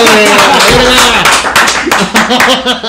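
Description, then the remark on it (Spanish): People clap in a steady stream of sharp, bright slaps that runs through the whole moment, mixed with voices talking and calling out loudly over it. “Estamos aplaudámosle porque esto hizo la tarea al cerote,”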